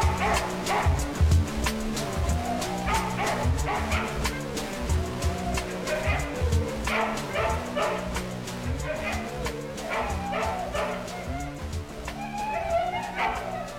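Dogs bark repeatedly in the background of a loud, driving music track, their sharp barks and occasional yips poking through the steady beat and layered instruments.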